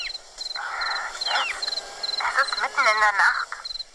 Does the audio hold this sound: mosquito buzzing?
yes